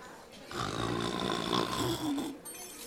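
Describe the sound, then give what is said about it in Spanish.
A person demonstrates pretend snoring with one long, rough, rattling breath lasting about two seconds, loud and guttural with a low growling texture. “Si le aburro, hagan como que roncan.”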